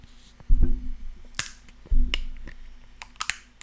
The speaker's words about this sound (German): Und auch vorbildlich mit dem, mit dem Pappstrohhalm. Ich möchte diesen Sound bitte auch im Dings haben.